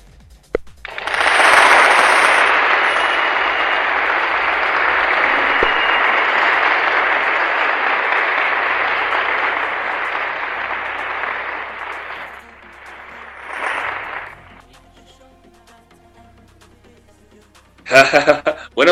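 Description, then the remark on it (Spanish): Loud, dense applause from a crowd swells quickly and holds steady for about ten seconds, then fades into a brief smaller burst of clapping before dying away. “¡Aplausos, por favor!”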